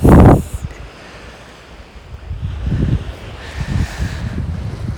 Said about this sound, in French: L'océan devant moi et juste derrière l'océan, le continent. Euh, je suis sur la pointe extrême est de l'île.